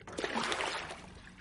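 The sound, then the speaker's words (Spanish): Water sloshes and splashes in a filled bathtub as two people bathe together, a brief burst of gentle, irregular movement that softens toward the end. “Más tarde, Lucía y Diego se bañan juntos.”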